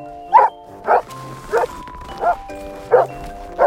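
A dog barks six times in a steady, evenly spaced rhythm, each bark short and sharp, clear with no one talking over it.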